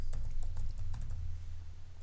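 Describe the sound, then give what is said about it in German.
Quick, irregular keyboard typing, a run of light clicks and taps over a steady low hum, with no voices; someone typing the German word 'Domestizierung' to look up the domestication of the wolf. “Moment, das ist ganz schön schwer einzutippen, das Wort Domestizierung.”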